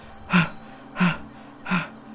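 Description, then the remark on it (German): A hurried man with a sweat-soaked forehead stops and pants heavily, three loud, breathy gasps evenly spaced about two-thirds of a second apart, with no talking. “Und ihr reitet gerade so eine kleine Strecke entlang als schließlich euch ein Mann entgegenkommt, schweißnasse Stirn, der sehr gehetzt aussieht und sofort vor euch stehen bleibt und keucht.”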